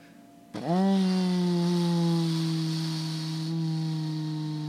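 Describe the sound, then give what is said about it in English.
A man's voice imitates a vacuum cleaner: a loud, buzzing drone kicks in abruptly, sweeps briefly upward in pitch, then holds a steady whirring hum for several seconds. “just turned into a vacuum cleaner.”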